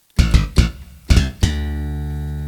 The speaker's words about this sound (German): Genau, jetzt haben wir den Funkbass. Den oktaviere ich jetzt nochmal. mal. Und dann haben wir diesen geilen Sound.